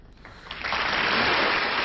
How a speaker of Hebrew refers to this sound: כן. אה, מחיאות הכפיים האלה הוקלטו בפריז. השיר הזה הוקלט בהופעה בפריז בשנת 1957, שאני הייתי בן ארבע.